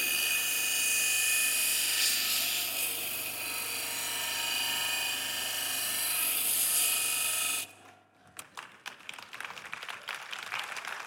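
A power grinder shrieks steadily and loudly against metal for several seconds, throwing sparks, then cuts out abruptly, leaving a series of sharp clattering and rattling noises.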